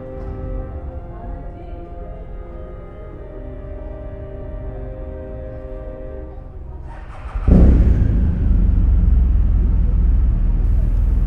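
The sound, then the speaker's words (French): Cars move through a town square: a steady engine hum builds, then a louder vehicle rumbles past and the roar of traffic carries on to the end. “Parce que pour l'instant, putain, c'est surtout les bagnoles qui se sont libérées.”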